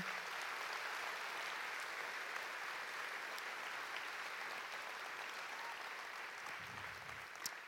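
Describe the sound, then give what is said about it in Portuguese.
An audience gives an applause to the Lord, clapping together in a steady, dense wash that holds evenly from start to finish, with no one speaking over it. “Se você está entendendo a palavra até aqui, eu quero que você dê um aplauso ao Senhor.”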